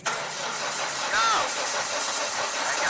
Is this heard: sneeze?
no